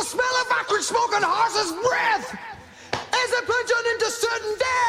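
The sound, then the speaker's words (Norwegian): A few sharp hand slaps on a thigh land amid loud, continuous laughter and talking, each smack brief and partly buried under the voices. “Altså, Han klasker seg på låret inn der.”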